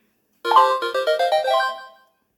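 A short melodic ringtone plays alone: a quick run of bright, clear electronic notes lasting under two seconds before fading out, fairly loud.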